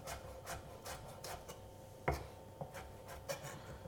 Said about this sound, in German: Ähm, deswegen wieder mit dem Messer draufdrücken, dass die Schale leicht runtergeht, in der einen Richtung einschneiden und dann zu kleinen, feinen Würfeln schneiden.